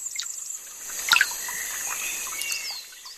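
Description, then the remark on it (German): Outdoor nature ambience in the Rostocker Heide heath in Germany, at a bench beside the water: a steady soft trickle of water, scattered bird chirps and twitters, and one brief sharper click partway through; no one speaks. “Also wir sitzen hier in der Rostocker Heide auf einer schönen Bank, nah am Wasser.”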